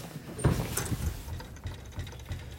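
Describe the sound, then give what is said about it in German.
A few soft, muffled thuds from an organ keyboard key being pressed and released, cushioned by felt under the keys; quiet, with faint mechanical clicks in between and no talking. “Hört man vielleicht, dass die Taste äh, etwas weich äh, aufschlägt.”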